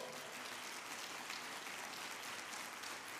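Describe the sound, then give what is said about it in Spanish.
An audience applauds for the Lord, a dense, steady wash of many hands clapping at once that holds at an even level throughout, with no voices standing out. “Si usted lo cree, se lo da fuerte al Señor.”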